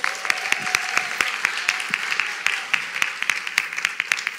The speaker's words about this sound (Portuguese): Uma salva de palmas para essas mulheres maravilhosas.